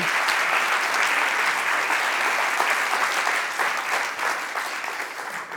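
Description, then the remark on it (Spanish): An audience bursts into steady applause for don Ramón María del Valle Inclán, a dense wash of many hands clapping at an even level for several seconds, tapering only slightly near the end, with no voices over it. “Aquí un aplauso para el insigne don Ramón María del Valle Inclán.”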